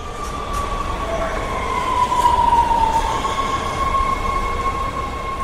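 A subway train rumbles steadily along the track, its wheels giving off a thin, wavering metallic squeal over the constant low roar of the carriage. No one speaks.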